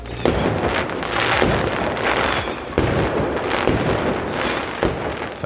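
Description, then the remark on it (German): Fireworks crackle and pop continuously, with dense bursts of sharp bangs layered over a steady rumbling roar, loud throughout with several stronger booms standing out. “Feuerwerk!”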